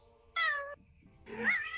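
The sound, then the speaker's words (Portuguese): A cat meows twice, a short flat cry followed after a brief pause by a longer, rising and falling meow, both fairly loud with no talking. “E dessa vez não estou sozinho, estou com meu gato.”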